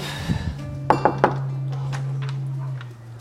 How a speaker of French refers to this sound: Alors voilà, on arrive chez, euh, Tom Frager à Cap-Breton. Je vais frapper à la porte.